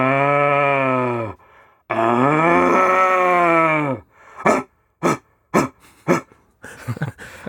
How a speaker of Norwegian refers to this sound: Det føles ut som en urlyd. Ja, det er en urlyd. Mm. Ja, det er skikkelig urlyd. Det er faktisk en hjortebukk ja.